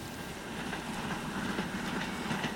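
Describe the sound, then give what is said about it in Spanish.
Wheels of the Chepe train clatter steadily over the rails through colonia Anáhuac in Ciudad Cuauhtémoc, Chihuahua, echoing off the door of a house, in a continuous, rumbling rhythm with faint periodic clicks, a dense mid-range roar holding at an even loudness throughout, with no voices. “Todas las tardes el repique de las ruedas del tren sobre los rieles rebota en la puerta de una casa de construcción sencilla, de un solo piso y patio que se distingue de las demás por el color azul de su fachada.”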